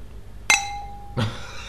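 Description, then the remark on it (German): Two cheap drinking glasses clink together in a toast: one bright ringing tap that hums briefly, then a second, duller knock a moment later, with no talking. “das, das, sind hier die, sind die billigen Gläser meiner Ersatzwohnung, würde ich behaupten.”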